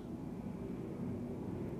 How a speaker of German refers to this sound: nicht einmal ein Rascheln, außer das Flugzeug, was über den Himmel flog.